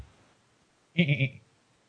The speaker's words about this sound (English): God damn it! How did you get in here? Freaking even evil goat from hell.